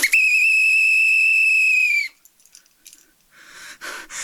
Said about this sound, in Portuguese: Apito final, acabou o jogo.